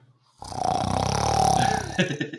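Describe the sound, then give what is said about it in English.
A person imitates with their voice the big, loud snore of a friend who fell asleep: one long rumbling, buzzing inhale lasting well over a second, forceful, followed by a brief sputtering release. “Like it was it was big. Like it was a big snore.”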